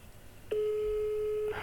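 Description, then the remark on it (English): One steady, clear telephone ringing tone on a call to a German-language Belgian speaking clock, lasting about a second before cutting off, heard alone over a faint hum of line noise. “It's ringing.”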